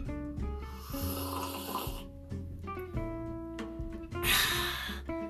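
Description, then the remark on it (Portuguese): A voice imitates an old man's noisy swallow after a drink: low, throaty gulping and rasping sounds with two breathy, hissing exhales, one early and a louder one near the end. “Quando vai tomar café, água, qualquer coisa que vai tomar, dá aquela. aquela esse, esse barulhinho, ó.”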